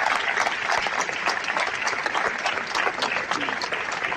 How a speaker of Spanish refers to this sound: A las 12 del mediodía daba comienzo ese minuto de silencio con unas 200 personas congregadas en la Plaza de la Constitución frente al Ayuntamiento de Oviedo. Un minuto de silencio que solo rompieron los aplausos y los vivas a la Guardia Civil.